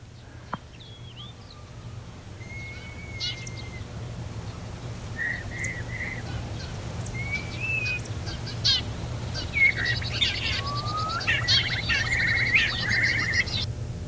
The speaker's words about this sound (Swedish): Spå, äh, Stara som sjöng mm. och sen ett tu tre spovdrill. Ja. Alltså, staren kan ju härma vad som helst.